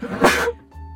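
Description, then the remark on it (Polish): A single loud sneeze into soup bursts out sharply and trails off, followed by a brief quiet moment and a faint low hum. “Teraz podobno na zdrowie, mówi Wolfgang, kiedy ich ten kichnął do zupy.”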